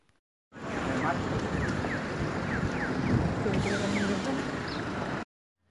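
A busy city street ambience with a steady wash of cars passing along the roadways and indistinct murmur and laughter of people walking on the sidewalks, plus a few brief high chirps, holding at an even, fairly loud level throughout.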